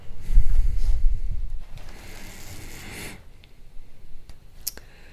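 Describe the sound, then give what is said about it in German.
Paper rustling as pages of a book are flipped to pick a short passage to read, with soft handling thumps at first, then a longer sweep of pages and a few light clicks; no one speaks. “Wir blättern jetzt mal irgendwo rein und werden einen kleinen Absatz lesen.”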